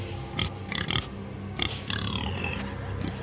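A pig squeals and grunts in harsh, repeated bursts, the shrill cries rising into a long wavering squeal near the end, loud with no talking.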